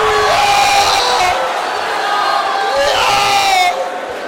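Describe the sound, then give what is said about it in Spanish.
An Argentine man's loud, sustained shouting rises over a roaring crowd, his voice pitched high and strained as he rallies them, with the crowd noise swelling steadily underneath throughout. “Ese huevón que grita. Hay un argentino que anima, ¿no?”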